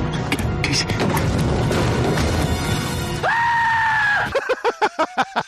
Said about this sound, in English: Well, he did it, Casey. He certainly screamed like a banshee.